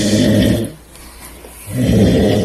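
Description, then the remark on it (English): Two loud, rumbling snores separated by a quieter breath in between, with no talking around them. “If you have a snorer in the house,”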